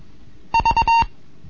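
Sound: morse code beeps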